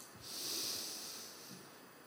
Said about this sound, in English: Deep breath. And I just choose an attribute I want to celebrate. And I say, I say that for your love. And I breathe out.